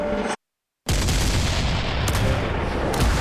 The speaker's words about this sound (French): Par miracle, les canons pirates ont manqué ces navires, faisant voler dans l'air de grandes gerbes d'écume qui retombent sur les ponts des sloops.